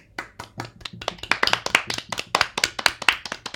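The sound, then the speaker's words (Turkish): A short burst of hand clapping from a small group, quick overlapping claps building in a steady, lively rhythm for a few seconds, moderately loud with no talking. “Evet alkışları alalım.”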